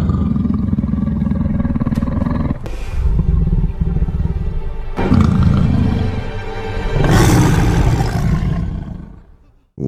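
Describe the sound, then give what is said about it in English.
A lion's deep, rumbling roar, used as a sound effect, loud, rising in several powerful surges with guttural growling between them before fading out at the end. “Let's awaken the lion.”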